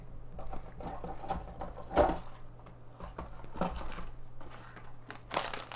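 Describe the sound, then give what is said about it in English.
Crinkling of a cough drop wrapper: irregular bursts of crisp, papery rustling, with a louder crackle near the middle and another at the end, heard over a steady low hum. “That's fucking cough drops.”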